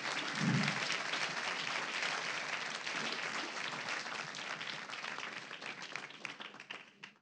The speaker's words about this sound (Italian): e devo dire che anche le associazioni sportive e le scuole sono state meravigliose e si sono impegnate in maniera encomiabile, direi. Quindi un altro applauso per tutti quanti.